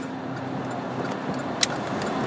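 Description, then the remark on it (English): Steady, dense road traffic with many cars rumbles and hisses continuously at 10:30, a wash of car noise with no voices, broken once by a brief sharp click. “there's some traffic, but it's not like this. This is like dead center in a pretty busy.”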